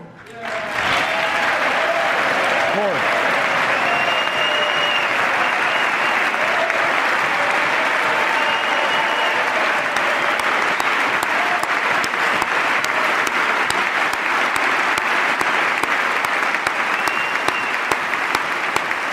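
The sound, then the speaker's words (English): Sustained, loud applause from a large audience, a dense steady roar of clapping that continues without a break for the whole stretch, with one sharp clap, made too close to the microphone, standing out above the rest. “That solace clap. That was too close to the mic.”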